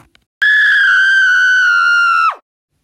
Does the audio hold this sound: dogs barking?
no